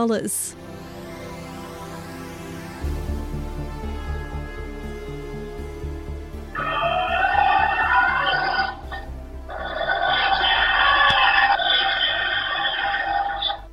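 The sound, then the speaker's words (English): Eerie electronic deterrent noises from a robot monster wolf deployed in Japan to scare away bears: sweeping synthetic tones and buzzing hums, then two long, loud, harsh roaring howls that blare out one after the other. “That's the terrifying sound of a robot monster wolf, the creatures with laser like red eyes, a realistic fur coat, and huge white fangs have been deployed in Japan to scare away bears.”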